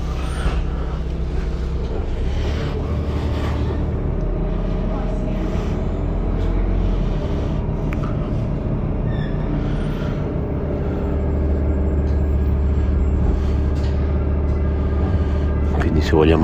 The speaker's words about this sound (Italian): Questo è il famoso autobus che io più di una volta ho contestato tramite ticket alla tipper di essere in ritardo.